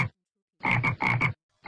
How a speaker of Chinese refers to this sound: “呱呱”一声，但是下一秒钟，四周又会恢复宁静。那是青蛙的叫声，你听过吗？